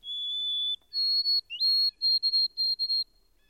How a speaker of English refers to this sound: It was most noticeable in the morning and at twilight, but it was at all times singularly secret and elusive. I at last discovered that it was the white throated sparrow, a common bird all through this region.